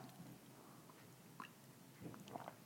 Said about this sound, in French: Je vais prendre une petite gorgée.